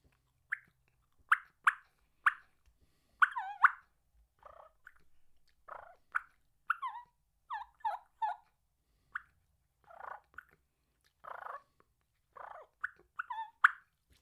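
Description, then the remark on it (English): Soft turkey feed talk made on a call: a steady run of quiet clucks, purrs and short yelping notes, clear, with brief gaps between them and no talking. “and then i would mix it in with some soft feed talk”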